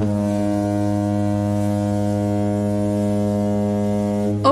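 A loud, deep foghorn blares in one long, steady honk lasting several seconds, rich and droning, then cuts off abruptly at the end with no voices.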